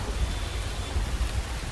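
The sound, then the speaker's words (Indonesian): Steady rain pours down at night in a dense, continuous hiss with a low rumbling undertone, even throughout, with no voices present. “Takut ini hujannya malah bikin deres nih.”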